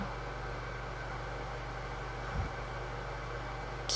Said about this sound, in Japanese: これ絶対うるさいよね換気扇うるさくなってると思う